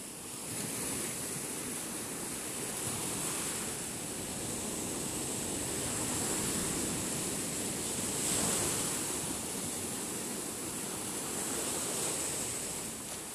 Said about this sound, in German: Du nimmst mich mit, mit jeder Welle, die zurückflutet und der Sand, der unter meinen Füßen von dir hinweggespült wird.